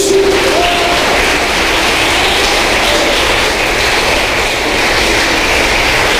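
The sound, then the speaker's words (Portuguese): A large crowd with raised hands claps continuously for the name of Jesus, a dense, loud wash of applause that holds steady for several seconds without pause, with no voices standing out. “E se você crê nisso, levanta as duas mãos, porque é uma época, e aplaude”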